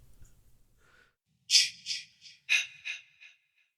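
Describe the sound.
A voice imitates heavy, raspy breathing: two quick sets of three loud, harsh breaths, following a moment of near silence.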